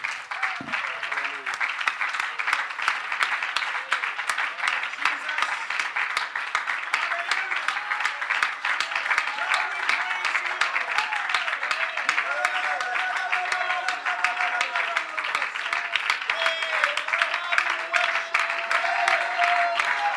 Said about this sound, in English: Let's give Jesus one more good hand clap of praise before we're seated.